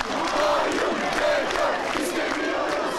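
A large crowd of students, graduates and lecturers protests in front of the Boğaziçi University gate, chanting and shouting together in a steady, loud roar, voices rising in rhythmic bursts without pause.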